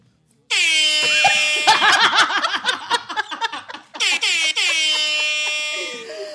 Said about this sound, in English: I just get silence. Well, sound effect. You don't get my air horns.